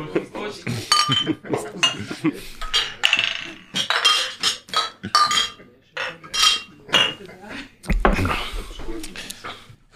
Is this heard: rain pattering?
no